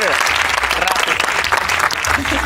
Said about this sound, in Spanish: Un aplauso para ella, por favor.